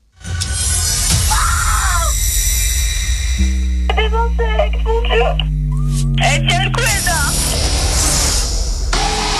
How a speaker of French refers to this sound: la pauvre qui est en train de paniquer, on l'entend crier.